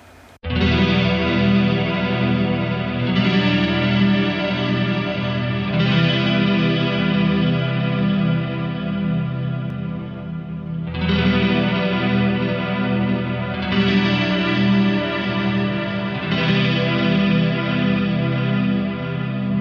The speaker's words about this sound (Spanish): De la cual destacamos una de las mejores canciones según su servidor, quien les habla.